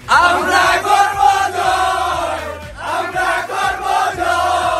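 The Bangladesh cricket team celebrates loudly in the dressing room after a series victory over Australia, many voices shouting and chanting together, with rhythmic thumps like stamping or clapping running steadily underneath.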